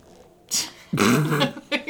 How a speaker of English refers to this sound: A sleepy growl. that sounded so half-hearted initially. He was like, "I'm gonna go back to sleep now."